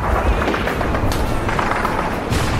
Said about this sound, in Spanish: Nos vemos, si dejan de pegar tiros, claro.